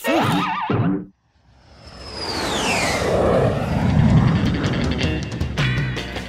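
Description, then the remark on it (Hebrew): World War II US Air Force military airplanes on bombing missions fly at high altitude, roaring overhead with a broad engine rumble swelling steadily as a high whine sweeps downward, preceded by a brief wavering tone and a moment of silence. “במהלך מלחמת העולם השנייה השתתפו מטוסים רבים של חיל האוויר של ארצות הברית בהפצצות. המטוסים היו טסים בגובה רב, שם קר.”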